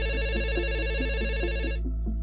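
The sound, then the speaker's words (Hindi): A telephone rings with a steady electronic warbling trill, repeating in quick even pulses over a low background hum, with no voices: a call from a medical store owner in Jamalpur village to the Mirzapur police. “एक शाम जमालपुर गांव के मेडिकल स्टोर चलाने वाले गोविंद सिंह ने मिर्जापुर पुलिस को फोन किया”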